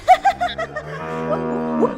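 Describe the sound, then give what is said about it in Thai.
An angry old ox lets out a loud bellowing moo: a few short choppy grunts at first, then a long, drawn-out low call with a rising strained edge near the end. “อุ้ยอุ้ยโมโหใหญ่แล้วโอ้โหกลัวนะเนี่ยโอ้กลัวนะเนี่ย”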